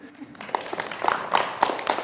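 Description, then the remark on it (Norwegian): Sparse, scattered clapping in the festival hall at Tøyen on a Wednesday as Posten launched new stamps featuring Munch's pictures, a handful of sharp claps at irregular intervals against a diffuse background murmur. “Spredt applaus i festsalen på Tøyen da Posten lanserte nye frimerker med Munchs bilder som motiv på onsdag.”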